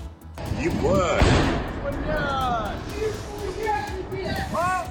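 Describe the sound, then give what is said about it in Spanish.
Buzzing engine whine of kamikaze drones used by the Ukrainian army, filmed by soldiers, its pitch sweeping up and down as they pass, over steady outdoor noise with several people talking in the background. “Es el sonido de un vídeo de unos militares grabando esos drones kamikazes utilizados por el ejército ucraniano.”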